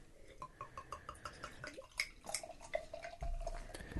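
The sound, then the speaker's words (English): Beer glugs out of a 750 caged and corked bottle in a quick, regular run of hollow pulses, then settles into a steadier pour with a rising tone, fairly loud, with no talking. “It's a very uh, noisy bottle, as you just heard there. Glug, glug, glug, glug, glug.”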